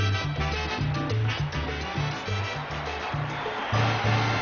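Guaguancó-style salsa music plays steadily and fairly loud, with a bouncing bass line and dense percussion and brass-like layers. No one speaks over it.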